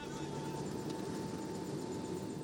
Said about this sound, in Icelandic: Ég er komin aftur upp í flugvél á vegum Katar sem er að flytja nokkra bladamenn og 300 flýjandi afgana úr landi og ótrúlegt en satt líka mennina sem þeir eru að flýja undan.